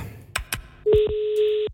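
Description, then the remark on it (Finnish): Two quick taps like phone keypad presses, followed by a steady electronic tone as a telephone call starts ringing through, fairly loud, with no voices. “Soitetaan.”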